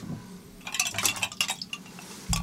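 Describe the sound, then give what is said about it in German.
Several bright, quick clinks of glass knocking against a hard surface as a glass is handed over for tasting a Corsican aperitif wine, clustered in an irregular burst and fairly quiet, followed by a soft thud. No one speaks. “Da hast du ein Glas.”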